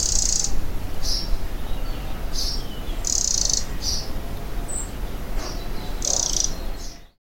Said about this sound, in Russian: Вот вы сейчас можете послушать треск крапивника. Крапивника.